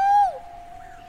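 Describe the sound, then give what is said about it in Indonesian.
A single loud, hollow owl hoot that starts strong and then trails off into a softer, drawn-out tone, heard on its own with no talking. “Tinggal kita sama Huhu si burung hantu aja di sini.”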